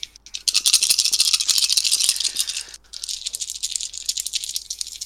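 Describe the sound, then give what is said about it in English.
Dice rattle steadily for about five seconds before a roll, shaken in a hand or cup with a brief pause partway through. The clicking is bright and busy, and no one speaks. “Not using the die roller.”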